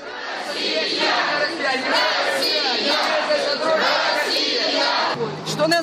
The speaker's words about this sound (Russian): Здание, где она встречается с журналистами, окружено толпой